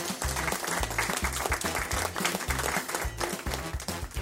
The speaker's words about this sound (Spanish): Aplausos.